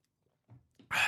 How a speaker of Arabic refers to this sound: رشفة أخيرة